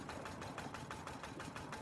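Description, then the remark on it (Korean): A distant boat engine chugs steadily with a fast, even knocking rhythm as an old, weathered boat approaches through thick fog at sea, heard alone at a fairly low, constant level with no voices. “그렇다고 집에 가겠다는 단호함을 누그러뜨린 것은 아니었지만 멀리서 익숙한 엔진 소리가 들려왔다.”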